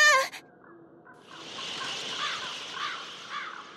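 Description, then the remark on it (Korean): A single harsh crow caw rings out at the start, followed by a steady rush of crow wings beating roughly in the air a short way off, swelling and pulsing as the bird takes off. “그는 이미 조금 떨어진 공중에서 까마귀 날개를 우악스럽게 움직이고 있었다.”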